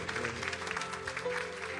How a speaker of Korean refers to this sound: 감사 박수 올리도록 하겠습니다.